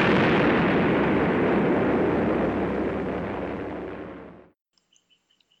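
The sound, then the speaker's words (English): Aerial bombs dropped by an unknown aircraft over Sea Beach exploding in a loud, continuous rumbling roar that slowly weakens for about four seconds, then cuts off abruptly into near silence with a few faint chirps. “The unknown aircraft passed over Sea Beach and dropped bombs.”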